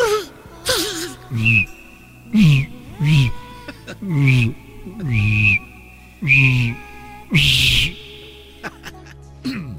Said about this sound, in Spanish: con el silbato, ¿no?